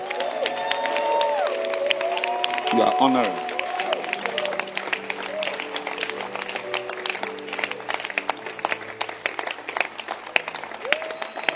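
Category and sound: crowd, audience clapping hands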